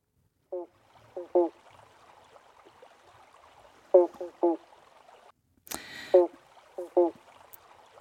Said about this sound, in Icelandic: Þetta er banjófroskurinn. heitir það því að uh, hljóðin uh, þykja að vera eins og, eins og, eins og banjó